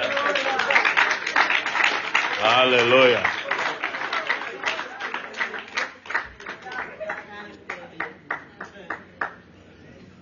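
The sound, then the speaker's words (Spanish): An audience bursts into dense, loud applause while a voice calls out over it; the clapping then thins into scattered, separate claps that taper off toward the end. “aplauso al que vive.”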